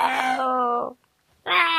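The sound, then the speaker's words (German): A tomcat howls in two long, drawn-out wails separated by a short pause, each one loud and held at a steady, fairly high pitch with a rich, nasal tone. “Kater, ist ja schon gut. Bitte höre auf mit dem Geheule.”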